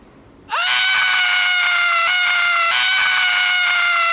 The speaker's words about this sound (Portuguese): Ao ouvir minha fala, o garoto pareceu se transformar. Aumentou a frequência da sua respiração de uma forma estranha e subitamente começou a berrar.